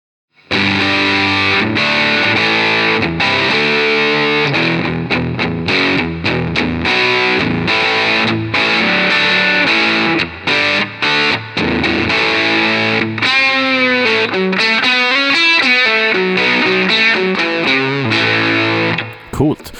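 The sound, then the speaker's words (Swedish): A distortion pedal with its unlabeled switch set up in the "fat" position: thick, saturated guitar tone with heavy low end, playing a run of chords and sliding bent notes, loud and sustained for the whole clip. “den här eh, eh vad man kallar switchen då, står upp i det feta läget”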